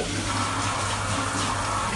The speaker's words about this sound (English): I'm in the shower. I thought I'd share with you guys my shower routine.